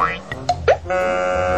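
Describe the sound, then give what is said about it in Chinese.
A cartoon crash-into-wall effect as QQ Pig, running forward with his eyes covered, slams straight into a wall: a quick rising zip, a few sharp thuds and a springy boing, then a steady ringing wobble that holds to the end. No one speaks. “砰的一声，QQ 猪呢直接撞到墙壁了。”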